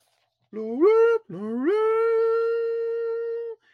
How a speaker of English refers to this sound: The first sound you hear is that oboe.